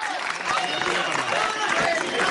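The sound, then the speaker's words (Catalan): Steady clapping, dense and continuous for a couple of seconds, as Yolanda Díaz, the Sumar candidate, takes her place before radio and television reporters, mixed with a murmur of crowd voices underneath. “Sí, ara Yolanda Díaz està col·locant davant dels companys de les ràdios i les televisions amb aplaudiments, com podeu escoltar.”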